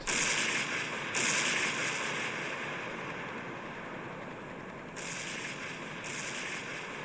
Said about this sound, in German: Als … … singt, geht der Dschungel schlagartig in Flammen auf. Überall Explosionen.